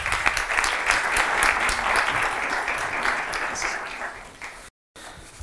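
An audience at a seminar applauds steadily to welcome a speaker on research methods, many hands clapping in a dense, loud crackle that holds for several seconds, then fades and cuts off briefly before resuming faintly.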